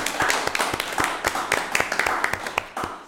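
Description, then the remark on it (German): Sharp hand claps from a small group ring out in quick, irregular succession, fairly loud, with a faint murmur of voices underneath. “Wir dürfen jetzt hier auch klatschen für die kurze Verschwörung.”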